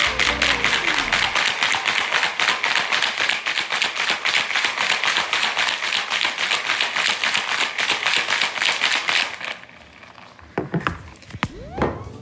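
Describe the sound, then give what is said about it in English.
A closed cocktail shaker is shaken hard with gin and ice, producing a loud, fast, steady rattling rhythm for about nine seconds, then stopping, followed by a few scattered knocks. “Gotta make sure it's on tight so you don't spill. I've had that happen before. Okay. And now we shake.”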